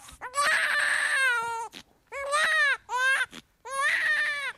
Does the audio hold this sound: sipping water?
no